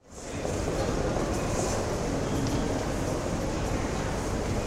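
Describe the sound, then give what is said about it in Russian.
A train rumbles steadily and loudly at Rizhsky (Riga) railway station, a dense low mechanical roar that stays constant throughout with faint hissing on top and no voices. “Все, сбор окончены, пора на Рижский вокзал.”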